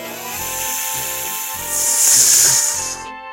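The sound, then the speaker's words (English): A snake in a platypus's tunnel hisses with a steady, breathy rush that swells louder midway and then cuts off, heard over a continuous musical background. “The snake hisses.”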